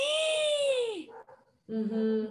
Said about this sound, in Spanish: Ay, sorry que el perro del vecino está que no se calla.